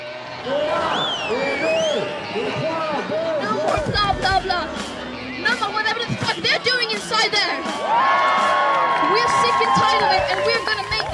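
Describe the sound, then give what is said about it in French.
A dense crowd of tens of thousands of young climate protesters shouts and cheers together in unison, loud, with scattered claps and a sustained high cry rising above the din near the end. “Un cri d'alarme lancé à l'unisson par des dizaines de milliers de jeunes.”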